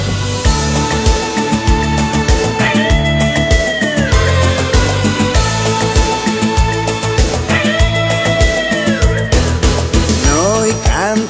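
Upbeat instrumental intro of a cartoon theme song, loud and full, with a steady driving drum beat, bass, and bright melodic lines that rise and bend, with no singing yet.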